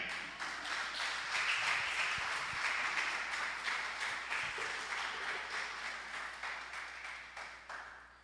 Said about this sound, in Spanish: Den un aplauso al rey.